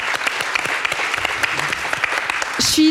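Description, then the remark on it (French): An audience breaks into steady applause, dense overlapping clapping filling the space at a fairly loud level, with a brief brighter burst of noise near the end. “merci à lui, on peut l'applaudir s'il vous plaît.”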